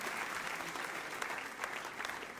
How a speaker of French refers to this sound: Est-ce que vous êtes d'accord avec ça que tous ceux par applaudissement, que tous ceux qui veulent être bénis applaudissent bien fort. On veut tous être bénis.